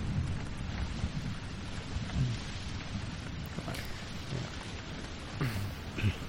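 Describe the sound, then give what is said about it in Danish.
A steady, dense roar of stormy weather fills the air, with gusting wind and a low rumbling underneath that swells briefly a few times. No one speaks. “vide, hvor lang tid den storm kommer til at være der”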